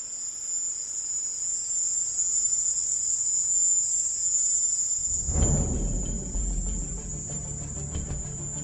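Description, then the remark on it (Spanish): Loud, continuous chirping of insects fills the warm night air in a house's garden in Havana, Cuba, in a steady high-pitched drone, joined partway through by a low rumbling background noise. “estoy en un país extraño y los insectos aquí hacen ruidos fuertes”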